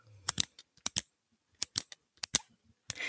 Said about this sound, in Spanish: Entonces, normalmente, como yo grabo en mi escritorio, ¿qué agarraba? Lápices, pinches, labiales, espejos, elige. lo, que, se escuchaba más era el lápiz. Que hacía esto.